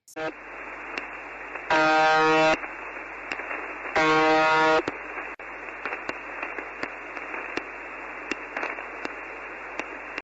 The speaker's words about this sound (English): Okay, so that's all you hear pretty much all day. It's just that right. like an alarm sound almost and a buzzing.